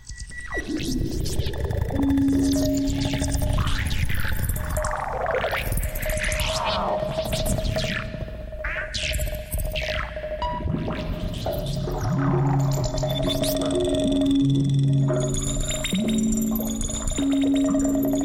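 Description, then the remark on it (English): Dense electronic tape collage music made using old reel-to-reel tape machines, probably from the 1950s or 60s, with swooping, warbling tones, watery gurgles and sustained hums layered together, constantly shifting and sliding in pitch at a steady loud level, with no voices. “It's sort of a collage music made using old tape reel to reel machines.”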